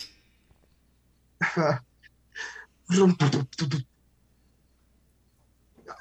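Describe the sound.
A voice imitates the engine of a 1938 Studebaker car: a few short, raspy sputtering bursts, one brief then a rapid cluster, with no other talk over them.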